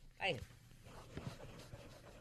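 A marker squeaks across thick paper in one short, high-pitched stroke, followed by a couple of fainter, softer scratches as it keeps writing.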